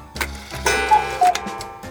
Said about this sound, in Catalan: Però si aquest rellotge no té cucut, la gràcia és que en comptes de la figureta d'un cucut surt una granota.